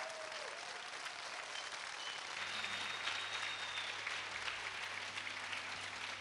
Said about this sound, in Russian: Самое время громко покричать, похлопать и поблагодарить ребят.